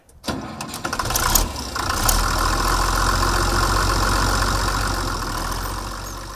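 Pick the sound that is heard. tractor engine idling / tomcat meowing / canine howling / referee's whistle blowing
tractor engine idling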